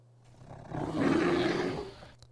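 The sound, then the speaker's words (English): A grizzly bear lets out a single deep, rumbling roar that swells over about a second, holds loud, then fades away, with no voices around it. “You start to hear the bear make his noises.”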